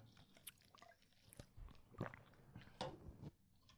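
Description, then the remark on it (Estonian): Quiet mouth sounds of someone sipping the last of a drink of coconut water: a few wet slurps and gulps at irregular intervals, with no talking. “Ah, ma joon selle viimase mm. lonksuga ära.”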